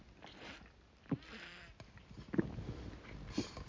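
Someone takes sips of water: a few soft gulps and mouth clicks spaced about a second apart, with faint breathy slurping in between and no talking.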